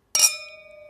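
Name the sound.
wine glasses clinking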